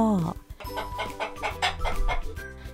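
A chicken clucks in a quick series of short squawks, opening with one higher, drawn-out call before settling into a steady, rapid rhythm.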